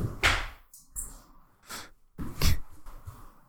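Several dull thuds of sneakers striking a surface, spaced irregularly over a few seconds, each landing with a short scuffing burst at close range and no voices.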